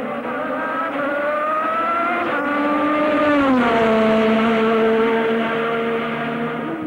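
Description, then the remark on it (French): A Formula 1 turbo race car engine, like Keke Rosberg's 1985 Williams with a Honda turbo engine of over 1000 horsepower, screams at high revs, its harmonic whine holding steady, then dropping in pitch midway as it shifts or passes, loud with no talking. “En 1985, le Finlandais et champion du monde 82 Keke Rosberg réussit, à bord de sa Williams à moteur turbo Honda de plus de 1000 chevaux, le record pour une pole position, 258,9 km/h de moyenne.”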